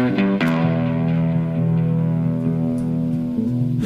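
A dance-pop song opens with sustained, processed synth chords that shift a few times, playing loud and steady with no vocals yet.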